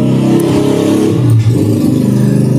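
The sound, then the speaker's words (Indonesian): Motorcycle engines rev and rumble loudly and continuously, the pitch rising and dipping as the bikes throttle up and pass, with no one speaking. “ada banyak motor lagi”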